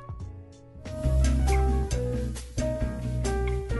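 A French samba-style pop song plays on its own, with warm sustained chords over a full, steady bass and light rhythmic accents, swelling fuller after the first second and staying fairly loud.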